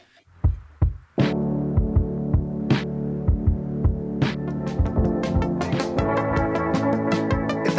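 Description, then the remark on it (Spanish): A short preview snippet of a new pop single: a deep thumping kick beat under sustained synth chords, with crisp percussion hits building in as it goes on. Loud, no vocals. “Estamos escuchando un adelanto de …, el nuevo sencillo de … que se estrena oficialmente el día de mañana”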